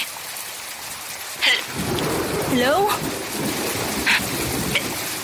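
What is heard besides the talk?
heavy rain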